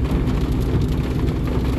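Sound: heavy rain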